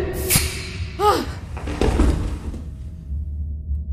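A door bangs, then a short squeaky creak and a burst of rattling, shuffling noise as it is pushed shut and locked, leaving a faint steady hum afterward.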